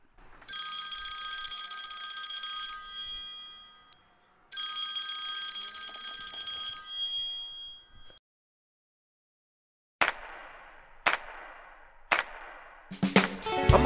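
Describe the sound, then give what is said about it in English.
A desk telephone's bell rings loudly in two long, steady bursts, followed after a pause by a few sharp clicks and clatters, with no one speaking. “Now, if only I knew whether or not the phone on my desk was hooked up.”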